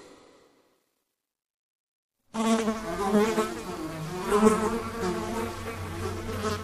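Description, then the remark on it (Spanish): After about two seconds of silence, a fly's wings start buzzing, a steady droning hum with harmonic overtones that swells slightly and holds to the end. “Las moscas son mudas y sin embargo, con sus alas producen lo que podríamos llamar su voz.”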